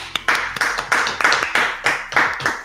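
Audience clapping in a steady rhythm during a live stream, about eight sharp, loud claps over nearly three seconds, with no speech over them.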